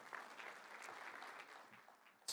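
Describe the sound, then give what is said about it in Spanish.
An audience applauds in a steady, dense wash of many hands clapping together, holding for a couple of seconds before swelling into a sharper, louder burst right at the end. “Dáselo fuerte, dáselo fuerte”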